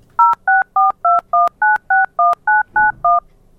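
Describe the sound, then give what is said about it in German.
A quick sequence of eleven telephone touch-tone dialing beeps played on a radio broadcast while listeners hold their phones to the radio, evenly spaced and clear, each a short two-pitch tone with brief gaps between, heard alone without any talking. “Haltet, liebe Hörer, jetzt mal euer Telefon ans Radio und wählt noch keine Nummer.”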